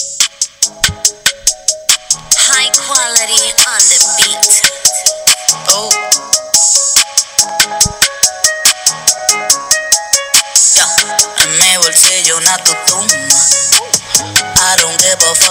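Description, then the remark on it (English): A song's chorus plays loudly from a phone speaker held close to a microphone, with a steady driving beat, bright thin tone and little bass. No one talks over it. “Yeah, I want people to hear this chorus.”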